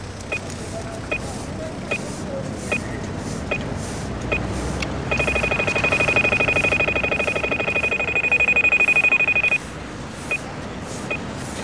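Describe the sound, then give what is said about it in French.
An audible pedestrian crossing signal in Brussels ticks slowly and steadily, then switches to a loud, rapid beeping for a few seconds, meaning pedestrians can cross, before returning to the slow tick, with street traffic rumbling underneath. “Quand c'est voilà, ça, on peut traverser.”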